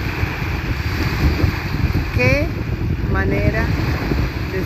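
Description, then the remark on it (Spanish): Steady, rushing surf of ocean waves washing onto the shore, a continuous broad roar with low rumble, with a couple of brief faint tonal calls rising over it midway. “te invito a ser partícipe de este oleaje que escuchas, la sola del mar, las aguas que vienen, que unas a las otras se empujan, olas hermosas rompiendo en la orilla”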